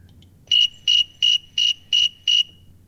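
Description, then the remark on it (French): A thermometer cricket, a species found notably in North America, chirps six times at 24.8 °C in a steady, even rhythm, each short pulsing chirp clear over a faint low background hum, with no voices. “Il a même nommé grillon thermomètre.”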